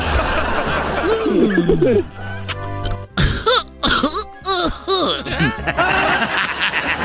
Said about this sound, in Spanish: pues es … tosiendo, güey, pero marihuana así. ¡Ay! Pura índica.